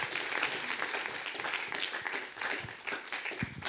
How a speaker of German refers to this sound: Und wir wollen Sie wirklich mit einem herzlichen, warmen Applaus willkommen heißen.